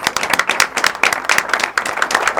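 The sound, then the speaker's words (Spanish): Steady applause from an audience for a guest, a dense stream of many overlapping hand claps at a fairly loud, even level, with no voices standing out. “Así que les pido por favor un fuerte aplauso para mi amigo Claudio de los Santos.”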